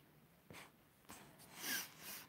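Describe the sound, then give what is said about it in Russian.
Several quick nasal sniffs, sharp bursts of breathy noise at an uneven pace, the last one longer and louder, with no talking around them. “Я шмыгаю носом.”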